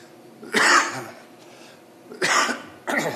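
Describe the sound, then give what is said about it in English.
Three harsh, fairly loud coughs: one at the start, then a pause, then two more in quick succession, with no talking in between. “Excuse me.”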